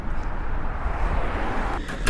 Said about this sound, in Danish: Hold op, der er en tung trafik.